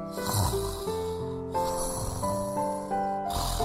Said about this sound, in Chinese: 大老鼠，大老鼠，你在打呼噜！